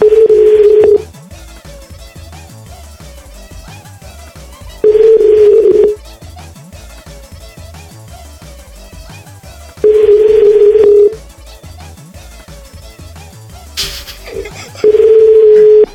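Telephone keypad dialing tones: steady one-second beeps repeating about every five seconds, loud and clear over a faint background hum, with no one talking.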